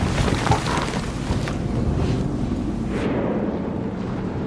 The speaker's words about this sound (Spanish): Menuda tormenta, ¿no?